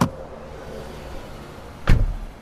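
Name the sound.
getting into a car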